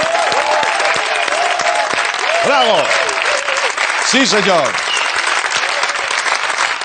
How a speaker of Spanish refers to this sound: Un aplauso para esta mujer, por favor.